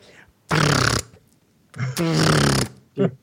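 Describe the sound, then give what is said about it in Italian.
A voice mimics the whirring wind of a nature photographer's film camera as the film rolls advance: two loud, buzzy, raspy bursts about half a second each, then a short clipped one, with brief silences between. “vedevo questi fotografi che faceva ridere perché con ste macchine a pellicola buttavano su sti rullini e sentivi”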